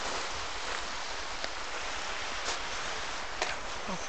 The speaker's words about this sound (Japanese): 奥の巣の周囲は砂地になっており、時折波が打ち寄せています。